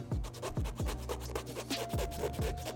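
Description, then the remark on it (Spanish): Scratchy rubbing of the colored, nylon-like panels of a sneaker, about half a dozen quick back-and-forth strokes in a steady rhythm, each with a soft dull thump underneath, with no talking. “No nada más tiene ya, eh, bueno, todos estos paneles de, colores que les mencionaba, que bueno, que por cierto son como nylon si escuchan”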